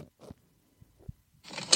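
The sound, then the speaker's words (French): A woman gets out of her car, late for work: a few soft, dull thumps and shuffling movements, then a burst of louder rustling and clatter near the end, with no talking. “désolée, je dois faire des vocaux parce que je suis en retard au travail, mais euh, je sors de ma voiture là”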